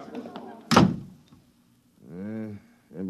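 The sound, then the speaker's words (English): An office door slams shut with a single loud thud that quickly dies away, between stretches of someone talking. “time I open that door, they surge in like a tidal wave.”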